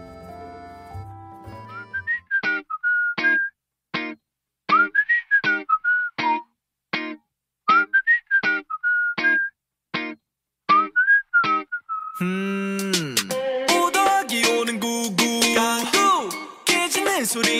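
A K-pop song opens with a bouncy whistled melody over crisp, evenly spaced beats, then bursts into full, dense instrumentation about two-thirds of the way through. No one talks over it.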